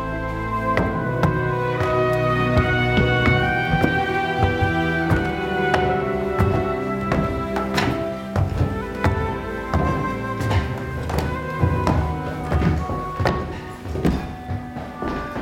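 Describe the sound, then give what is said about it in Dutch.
Footsteps climbing the grand spiral staircase of a castle up to the first floor, an irregular series of hard thuds and taps echoing, with a steady tonal hum running underneath. “We gaan de grote trap op. De grote wenteltrap.”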